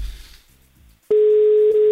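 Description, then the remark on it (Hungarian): A loud, steady telephone tone as a phone call is placed, starting abruptly after a second of quiet background and holding unbroken, a single sustained electronic pitch typical of a phone line ringing out. “Na hívjuk a telefon gyerekek, nézzük meg, hogy sikerül a héten utoljára felvenni valakinek.”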